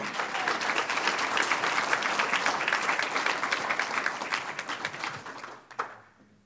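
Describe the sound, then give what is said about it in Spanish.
A church audience bursts into sustained, dense applause for the Lord, many hands clapping steadily for several seconds before it thins out with a few final claps and fades to quiet. “Un aplauso al Señor.”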